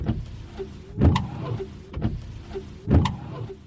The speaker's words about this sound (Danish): Vinduesviskere kører frem og tilbage og frem og tilbage for at fjerne vand fra bilruden.